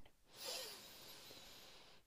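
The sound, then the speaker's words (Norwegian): A long, deep inhale drawn in through the nose during a bedtime breathing exercise, a steady airy hiss that swells quickly and holds for nearly two seconds before cutting off. No talking. “Vi begynner med å puste inn”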